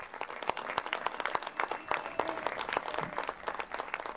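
An audience breaks into steady applause for Mexican migrants, dense overlapping claps with sharp individual hits standing out, sustained at an even level for several seconds with no one speaking.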